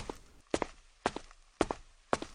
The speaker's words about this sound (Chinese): 画面显示，D 九零三五停顿了十八秒。然后走下十三级台阶，到了第一个平台停下了。